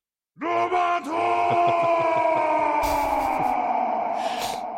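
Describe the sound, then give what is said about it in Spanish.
A loud, sustained human scream in a Japanese-style sound effect, rising sharply then holding a strained, harmonic-rich wail for several seconds, with a trailing echo and brief bright noisy bursts near the end. “¿Quieres poner alguna vez más el grito”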